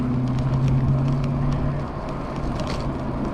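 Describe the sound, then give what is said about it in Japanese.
A big-engined, large-displacement car rumbles past, its deep, loud engine hum strongest at first and then fading as it moves away, with no one speaking. “うわーすごいなこの車がすごい排気量の車が通っていきました”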